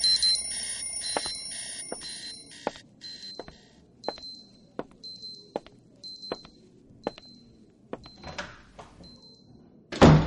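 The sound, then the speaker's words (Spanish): Several watches beep an alarm together, thin high electronic tones pulsing in a steady repeating rhythm with sharp ticks between them, ending in a sudden loud burst of noise. “Al sonar el pitido de los relojes, llegó la hora.”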